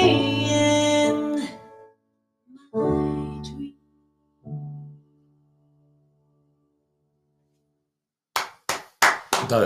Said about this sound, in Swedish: Säger det, du vet, det är en riktig applåd. Det är riktiga ja, grejer.